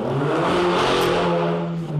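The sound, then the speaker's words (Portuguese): A motorcycle engine roars for about two seconds, a steady, loud mechanical drone with a rising revving edge, as it passes along the street. No one speaks. “Tudo bom, moto? Também é outra moto.”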